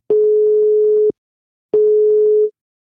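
A telephone ringing tone while a call is placed to the Maison des Ronrons, a cat boarding house in the 7th arrondissement of Lyon: two long, steady mid-pitched beeps separated by a brief silence, clean and fairly loud, with no voices.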